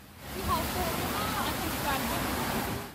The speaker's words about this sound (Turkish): Yapılan uyarıların ardından akşam saatlerinde yağış başladı. Kısa sürede şiddetlenen sağanak yağış Eskişehir'de caddeleri, sokakları suyla doldurdu.